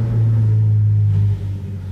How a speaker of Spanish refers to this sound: Perdón, es que pasó un carro.